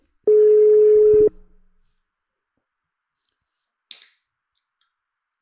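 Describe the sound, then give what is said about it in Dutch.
An outgoing phone call to an elderly man: the ringing tone sounds once, a loud steady beep lasting about a second, followed by silence and a brief faint click near the end. Nobody speaks. “ik ga dik even tussendoor even bellen, ja. Kijken wat, dat krijgen jullie ook mee”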